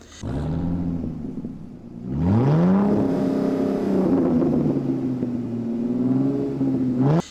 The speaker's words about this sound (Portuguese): Os cabelos de Bárbara esvoaçavam ao vento e quanto o motor V8 de 6 litros 700 rugia na estrada.